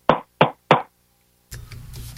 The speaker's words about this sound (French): Alors, dans la porte, pendant que je fais mes besoins, j'entends cogner dans la porte trois petits coups.